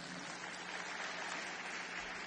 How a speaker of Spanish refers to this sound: ¿Cuántos quieren dar un aplauso al Señor?